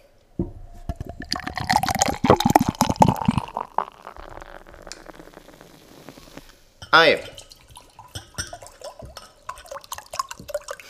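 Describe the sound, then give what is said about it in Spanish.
Water is poured into a glass with a bubbling, rising fill, followed by quieter handling and drinking sounds; a voice briefly speaks. “Beber agua.”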